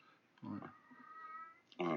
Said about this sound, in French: Attends, je vais virer le chat. Casse-toi. Hop.